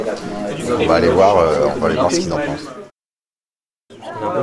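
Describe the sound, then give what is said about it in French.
People chatter in a group around pizza at a coding event, with one voice speaking over a busy murmur of conversation; the talk stops briefly and then resumes. “Donc là, le bruit que vous entendez, c'est les gens qui discutent autour de la pizza.”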